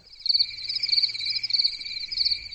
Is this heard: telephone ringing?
no